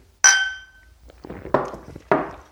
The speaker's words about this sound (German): Von daher noch einmal Prost. Ja. Komm, lass noch mal klingen.